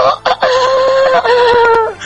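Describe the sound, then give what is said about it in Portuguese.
A voice imitates a rooster's crow: one loud, drawn-out call with a strained, wavering pitch, held for over a second before trailing off. No other talking is heard. “Aí vai o galo de novo.”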